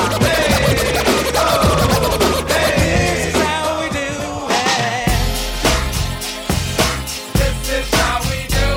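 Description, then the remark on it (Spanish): Loud DJ turntable scratching over a thumping hip-hop beat, with repeated swooping pitch glides at first, then choppy rhythmic cuts locked to the drums. No one speaks. “Toda la destreza en la muñeca.”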